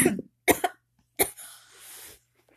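Three sharp, close coughs in quick succession, the last trailing into a longer raspy, breathy exhale before falling quiet.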